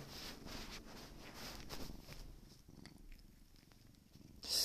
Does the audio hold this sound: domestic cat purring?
yes